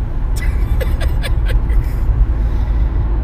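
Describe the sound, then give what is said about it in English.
Steady, heavy low rumble of road and engine noise inside a car driving back from a casino resort at Bay Mills in Michigan's Upper Peninsula, on plowed roads with two feet of snow still around, continuous throughout, with a few brief bursts of laughter near the start. “We're currently driving back from Bay Mills Resort and Casino in the Upper Peninsula of Michigan, and it is shitty.”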